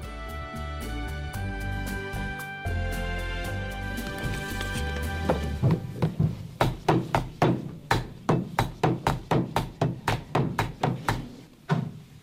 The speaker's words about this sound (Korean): 접수 날짜를 찍는 우체국 소인 망치솔인데요. 찍다가 아마 직원들 중에는 손가락 때려갖고 울어본 사람이 꽤 많을 거예요. 엄청 아프거든요.